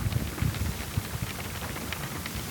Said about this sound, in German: Solange es noch regnet und ich was davon habe. Hören wir mal, regnet es immer noch?